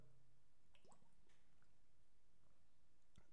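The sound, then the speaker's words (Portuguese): Quiet sipping of water, with a few small wet slurps and mouth clicks spread over a few seconds and near-silence in between. Nobody speaks. “Não sei, vou até tomar uma água agora.”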